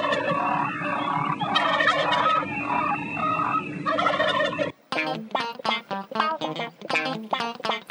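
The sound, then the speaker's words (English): Turkeys gobble loudly, a dense chorus of warbling calls for several seconds, then a pause and a series of choppy, rapid gobbles in quick bursts. “Heritage turkey?”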